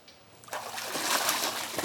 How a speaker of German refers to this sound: Wasser. Es tut so gut. Und es lindert die Atemnot, den Juckreiz.